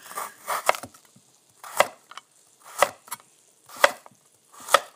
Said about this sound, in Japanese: 中でねあの包丁の音トントントントンって切る音ってすごく気持ちいいですよね。ここにも実はすごくこだわりがあってで例えばねあのよく薄いプラスチックのまな板とか今ここに1つあるんですがこれでちょっと人参切ってみましょうか。